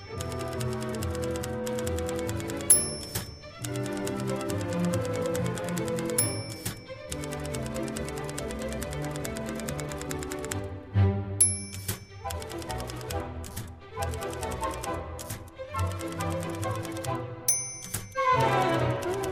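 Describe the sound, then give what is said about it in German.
A lively orchestral piece with the keys of an old typewriter clacking rhythmically throughout, punctuated every few seconds by the bright ding of a carriage-return bell and the slide of the carriage. “Eine alte Schreibmaschine soll man halt nicht wegschmeißen. Da kann man doch super Musik drauf machen.”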